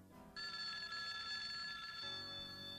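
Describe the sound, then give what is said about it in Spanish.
A telephone bell rings in a bedroom at night with a bright, sustained metallic trill lasting over a second, fairly loud, then cuts off, leaving a faint low hum. No one speaks. “Fue entonces cuando sonó el teléfono.”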